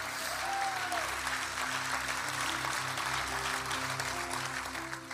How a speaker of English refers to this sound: Amen. Come on, clap for everybody that said yes.